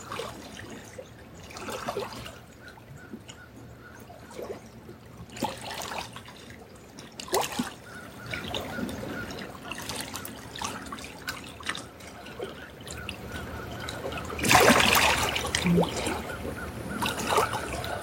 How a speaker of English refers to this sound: The sweet, gentle sounds of Kichigami and the Big Lake with us today, tending to our wild and precious souls.